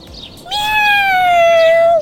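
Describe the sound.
A single long, drawn-out cat meow, loud, holding a steady pitch that slowly sinks before it stops, with only faint background noise around it.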